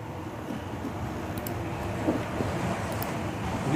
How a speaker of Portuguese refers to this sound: Ó, o avião. Não, é um caminhão agora.